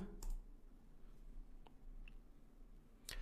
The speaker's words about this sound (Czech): Tak já to tam klikám, 3, 2, 1, go.